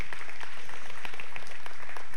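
An audience at a morning worship service claps their hands in praise to God in a dense, steady burst of applause, many overlapping claps forming a loud, continuous patter with no voices rising above it.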